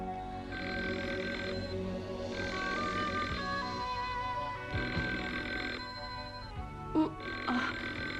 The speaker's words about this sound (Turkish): Oh, ne var yine? Telefon mu? Oh. Ay saat ikiyi geçiyor. Ah, annemlerde bir şey mi var acaba?